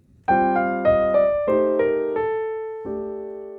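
A short descending scale played on a pitched instrument, starting from the fifth, about seven clear notes stepping downward at a moderate, even pace, each ringing and decaying, with a final held note. No voices.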